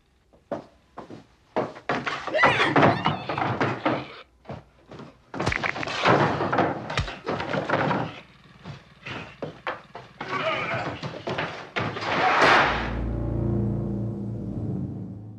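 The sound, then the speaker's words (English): In a film scene, a door slams shut with a heavy, low thud as a man is brought inside, one of several sharp knocks and bumps scattered through a busy, cluttered stretch of noise, followed by a lingering low hum. “gets hit, and then he gets hit again, and then he brings him in and then slams the door, and then and after then the sound comes, that's in.”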